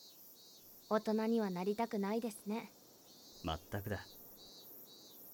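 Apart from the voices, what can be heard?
cicadas chirping in summer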